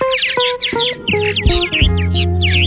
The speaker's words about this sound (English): The purple martin, Progne subis, today's Talking Birds featured feathered friend.